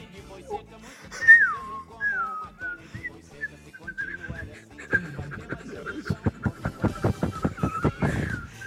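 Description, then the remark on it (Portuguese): Fluty mouth whistling in the flauteado style, played like a flute, opens with a high swooping note, then holds a wavering, gliding tone that is joined by a fast series of breathy, rhythmic puffs toward the end. “Já sabe que eu sou boa no flauteado, sim.”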